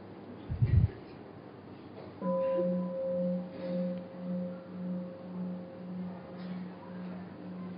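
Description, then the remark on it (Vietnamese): A single deep mindfulness bell is struck once after a soft thump, for the assembly to breathe, then rings out with a long, slowly pulsing hum that lingers and fades over several seconds. “tiếng chuông để cho đại chúng thở”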